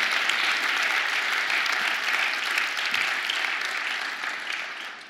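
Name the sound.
audience applause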